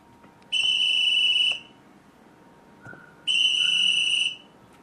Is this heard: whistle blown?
yes